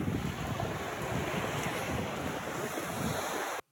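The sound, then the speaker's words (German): Steady roar of sea surf washing onto a beach on the island of Langeoog, mixed with gusty wind buffeting the microphone, continuous and fairly loud before cutting off abruptly at the end. “Und ich habe diese schöne Erinnerung hier mitgebracht. Dieses Rauschen.”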